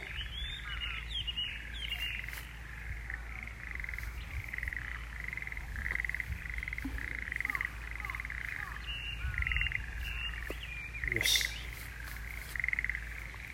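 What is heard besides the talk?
frogs croaking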